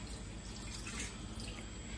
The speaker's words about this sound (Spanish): Primero echamos el agua